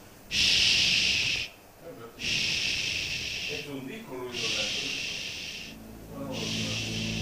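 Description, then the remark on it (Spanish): A voice imitates a soda siphon with four long, bright hissing bursts separated by short pauses, fairly loud, with breathy sounds between them. “Que yo te dije que el sifón hacía,”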